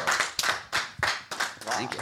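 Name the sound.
audience clapping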